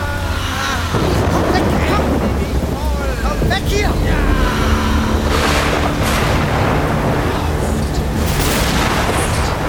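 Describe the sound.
Strong storm wind roars steadily, buffeting the microphone with deep rumbling gusts, while indistinct voices murmur faintly beneath the noise.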